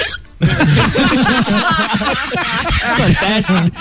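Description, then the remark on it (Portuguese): A voice imitates hiccuping, a loud run of jerky vocal catches and gulps in quick succession that lasts a few seconds without pause. “deu um soluço.”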